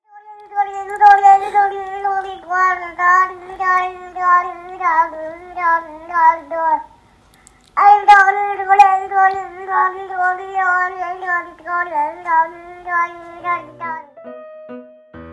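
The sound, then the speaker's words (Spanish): A baby girl under one year old, holding a book, babbles in a steady, sing-song stream of high, wavering syllables, repeating and intoning a story, rising and falling like storytelling, with a brief pause midway before the melodic babble resumes. “Bueno, acabamos de escuchar a una bebita de menos de un año de edad que fue grabada en un video con un libro en la mano en el que repite, entona y actúa un relato que probablemente su mamá, abuela o hermano le han contado con anterioridad,”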